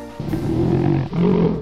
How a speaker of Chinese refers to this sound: 这时，我看到两只狗熊为了争吃蜂蜜正在打架，我顿时气不打一处来。